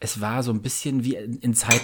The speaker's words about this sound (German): Hast du gerade, hast du gerade gerülpst oder hast du, was hast du? Ich wollte gerade den Kuchen, den ich nebenher esse, äh, eine mundfertige Portion äh, mit dem, mit der Gabel äh, einteilen und.